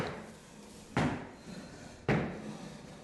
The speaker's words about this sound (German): Ja, wer klopft da? Da klopft doch einer.